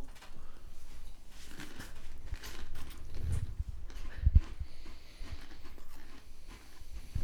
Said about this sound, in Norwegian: Nå er, det, nå er, det mye tygging. Nå er det mye god tygging og stillheter.